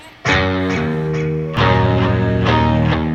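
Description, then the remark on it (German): During a soundcheck, a distorted electric guitar plays loud sustained chords, starting abruptly and changing chord about halfway, with bright picked attacks ringing over a thick harmonic drone; no one speaks. “klingt gewaltig. Stromgitarre.”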